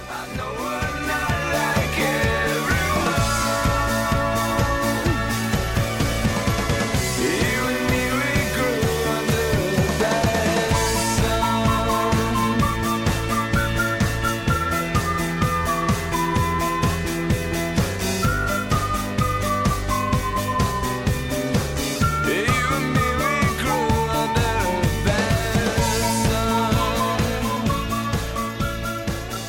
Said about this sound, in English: It's quite a jaunty song, isn't it? Mm, nice, nice whistling. Lovely.